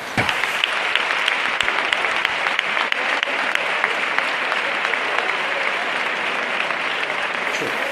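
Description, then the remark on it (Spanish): Sustained applause from a large crowd as the Cristo de las Tres Caídas is placed in the chapel of the sailors in Triana, closing Holy Saturday 2023: a dense steady patter of many hands clapping at an even loudness throughout, with no voices standing out above it. “Ahí suenan los aplausos”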